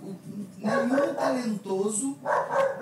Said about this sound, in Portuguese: Tem um cachorro latindo, gente. Tem. É, o seu.